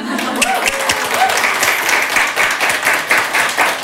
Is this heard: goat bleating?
no